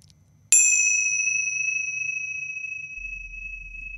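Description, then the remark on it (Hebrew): A single bright metallic strike rings out, then a clear sustained tone slowly decays over several seconds, like small meditation cymbals struck once and left to resonate alone. “את יודעת, נפטרתי מההרגל ההוא של מצילות, ואז אפשר לחזור אליהן.”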